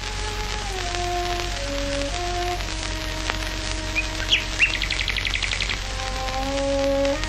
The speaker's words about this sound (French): On est en 1924. La violoncelliste Florence Harrison est en train de jouer dans son jardin et voilà qu'un rossignol se joint à elle.